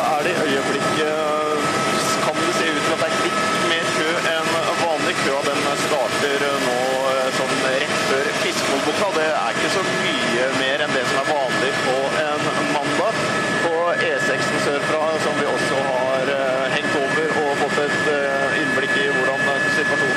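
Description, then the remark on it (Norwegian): A steady, loud helicopter engine and rotor roar fills the whole recording as the helicopter flies over Oslo, Norway, with a reporter inside talking continuously over the constant mechanical drone. “du eh, skal befinne deg oppi et helikopter over Oslo nå.”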